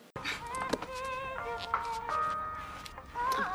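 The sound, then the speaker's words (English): A slow, smooth R&B-style phone ringtone plays for an incoming call, with sustained melodic tones gliding between notes at a steady, moderate volume and no talking over it. “It's like a weird R&B like slow wind kind of … type of mm-hmm.”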